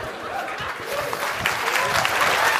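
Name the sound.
audience clapping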